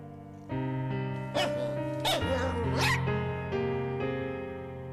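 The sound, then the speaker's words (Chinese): Sonya, a small, clever dog living in a third-floor apartment, gives three sharp, high yips over steady background music, each bark a quick bright burst with a sliding pitch, spaced about a second apart. “有一只又聪明又可爱的小狗，它的名字叫索尼娅。”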